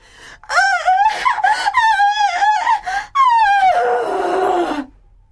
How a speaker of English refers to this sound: It sounded like a wounded animal, crying with rage.